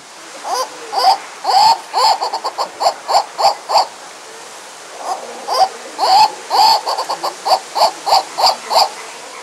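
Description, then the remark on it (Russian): A turaco gives two loud bouts of harsh, rhythmic calls, each a run of a dozen or so quick repeated notes, separated by a brief pause. No voices are heard. “Это был турако.”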